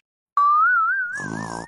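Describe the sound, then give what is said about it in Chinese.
A single cartoonish snore from Big Bear asleep in his house, heard through the door, starting as a thin, wavering whistle that gives way to a rough, rattling grunt, fairly loud and alone with no talking. “我把耳朵贴在门上，倒是听到了一阵一阵的呼噜声。”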